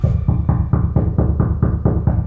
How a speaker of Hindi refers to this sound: फिर मुझे सबकी बातों के बीच एक आवाज सुनाई दी मैं आवाज सुनते ही चिल्लाया डैड जिंदा है डैड जिंदा है कॉफिन नॉक कर रहे हैं open the coffin open the coffin my dad is live